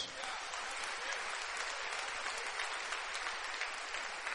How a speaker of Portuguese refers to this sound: A ele seja dada a honra, a glória e louvor. Aplaudo o nome de Jesus.